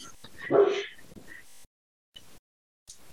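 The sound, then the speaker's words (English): A dog lets out one loud bark, followed by a few fainter, shorter sounds with brief silences between them. “There's the dog again.”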